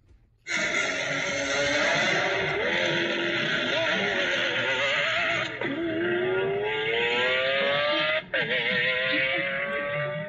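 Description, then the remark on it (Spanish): A high-revving Lamborghini Aventador V12 supercar engine screams continuously, its pitch climbing through gear changes with brief dips around shifts, loud and sustained for about ten seconds with no talking. “Espera, vamos a escuchar el aventador.”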